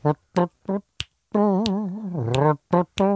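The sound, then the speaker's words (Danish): Crisp finger snaps land at a steady, swinging pace, distinct, while a voice hums a wavering, horn-like melody between and beneath them, imitating a wind instrument. “Hvor man kan knipse, ikke?”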